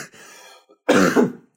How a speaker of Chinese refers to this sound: 哎，大家可能还能听到我们这个嗓子以及我们整个咳嗽。其实这个咳嗽很普遍，